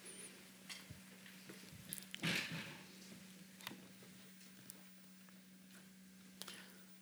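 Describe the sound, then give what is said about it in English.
Faint, sparse ticks of a clock sound at loose intervals over a steady low electrical hum at a Radboud Reflect evening event, with one brief louder rustle partway through. No one speaks. “There's a clock.”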